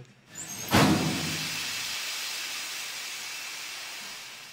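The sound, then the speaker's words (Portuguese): Sauna steam hisses in a sudden loud burst, then continues as a steady, broad rushing hiss that fades only slightly over several seconds. No voices are heard. “vamos lá, tá na hora da sauna.”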